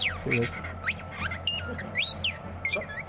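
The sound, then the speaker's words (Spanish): A parrot rapidly mimics R2-like robot beeps and whistles, a busy run of sweeping, warbling electronic tones over about three seconds, over a low steady hum. “Esto es un loro, ¿eh? Esto no es R2.”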